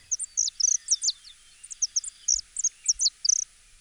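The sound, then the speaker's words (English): A saffron finch sings a rapid string of bright, high whistled chirps in short clustered bursts, repeating steadily for several seconds with no talking. “Native to South America, they were introduced to Hawaii in the early 1960s, mainly because of their colorful plumage and their pleasant whistle like songs.”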